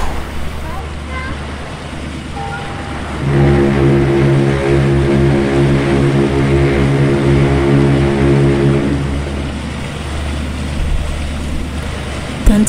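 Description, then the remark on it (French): A ship's engines as the boat departs and maneuvers out onto the Atlantic: a deep, steady engine drone rises abruptly and holds loud with a layered harmonic hum for several seconds, then fades back into low rumbling background noise. “les grandes manœuvres se faisaient pour faire déplacer le bateau sur l'immense Atlantique”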